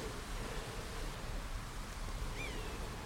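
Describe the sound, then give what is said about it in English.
A steady, even wash of flowing water from a little stream at the foot of a tussocky meadow in late November, along a waterway lined with hazel, beech, oak and alder, fills the whole clip, broad and hissy, with a brief high whistling call rising over it near the end. “Quite a tusky meadow leading down to a little stream which you can hear in the background”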